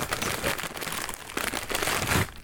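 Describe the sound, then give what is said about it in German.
Continuous crinkling and crunching of crackers, a dense run of crisp, brittle crackles and snaps with steady loudness throughout and no talking. “Wir haben uns heute das leiseste Essen ausgesucht für einen Podcast, nämlich Cracker.”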